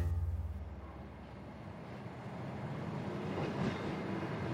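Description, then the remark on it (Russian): A train rolls steadily along the rails in Russia, travelling overnight from Voronezh to Novocherkassk, with a continuous low rumble and faint rhythmic clatter of wheels, with no one talking. “Поздним вечером мы запрыгнули в поезд в Воронеже, а утром уже подъехали к Новочеркасску.”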